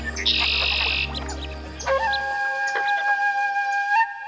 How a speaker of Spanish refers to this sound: Tanto aves acuáticas como aves terrestres pueden cantar en coro.